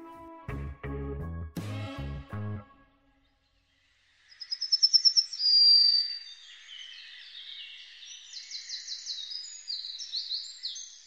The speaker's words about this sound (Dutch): Oh, meerdere vogels.